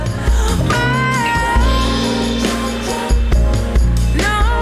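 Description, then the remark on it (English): A loud, full music track with a deep bass line and sustained, wavering melodic tones, washed in a subtle, slightly wobbly old spring reverb that colours the mix. No voices. “it's very subtle, but it's, it's just that really wonky old spring sound that I just think adds a beautiful colour to it, and it makes it sound kind of older than it is.”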